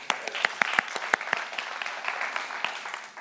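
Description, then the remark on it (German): A crowd claps for a few seconds, a dense patter of many hands with sharp individual claps standing out, moderately loud, with no voices over it. “kurz einen Applaus für Tommy”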